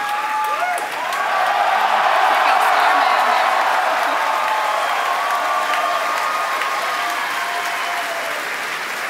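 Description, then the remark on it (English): A large crowd applauds and cheers continuously for the Falcon Heavy test flight. Dense clapping with scattered shouts and whoops stays steady and loud throughout, with voices mixed into the roar. “oh, well, if you can hear all that cheering.”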